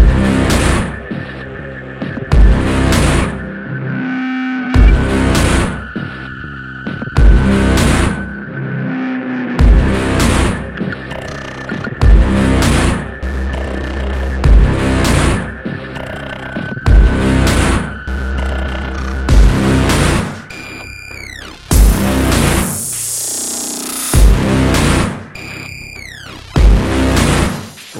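A loud, dark industrial electronic rock intro, with heavy pounding beats in a steady rhythm under droning, throbbing synth tones and a swelling noisy texture near the end, no vocals yet.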